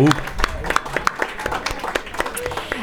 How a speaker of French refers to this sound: Oui, on peut les applaudir.